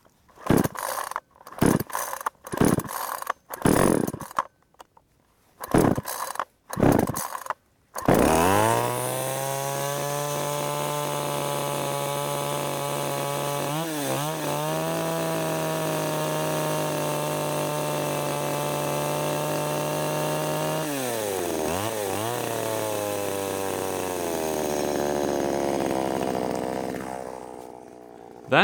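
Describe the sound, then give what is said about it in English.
A gas Shindaiwa 352S chainsaw, run by the speaker, sputters through several short pull-starts, then roars into a loud, sustained idle and rev, its pitch dipping and surging twice before cutting off abruptly at the end. “To be specific, it's the sound of a 352S Shindaiwa.”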